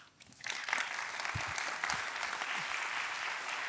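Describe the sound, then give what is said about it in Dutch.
An audience breaks into steady applause that swells quickly after a quiet start and holds as a dense, even clatter of many hands clapping for several seconds. “geef haar een hartelijk applaus.”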